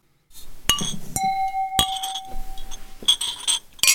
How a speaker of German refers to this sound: Deswegen würde ich vorschlagen, dass wir auf die Feierabendbiere anstoßen.